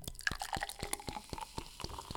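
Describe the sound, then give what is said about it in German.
Almdudler, a herbal soda, poured into a glass, heard as a steady run of sharp fizzy pops and crackles as it foams up, with faint liquid gurgling underneath and no one talking. “Gieß mal ein. Ich gieß mal ein.”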